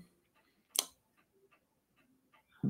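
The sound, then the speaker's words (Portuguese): A clock ticking softly at a steady pace, the faint ticks evenly spaced, with one sharper, louder click early on and a brief low thump at the end. “Que tinha esse. esse tinha esse, esse, esse relógio.”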